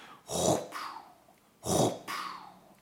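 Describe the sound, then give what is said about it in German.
A voice imitates a heart murmur: a loud breathy rush followed right away by a softer hiss, the pair repeated twice at a steady pace, fairly quiet. “das leisere Herzgeräusch und das hören Sie direkt anschließend nach dem lauten Rauschen kommt so ein Fauchen”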